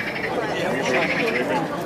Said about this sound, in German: Ruhe jetzt, Frösche, bitte.